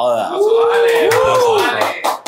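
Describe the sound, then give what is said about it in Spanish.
A short burst of applause celebrating the sold-out tickets for the show: scattered claps mixed with loud, rising and falling whoops and cheering voices, steady for about two seconds before tapering off. “Aplauso, muchachos.”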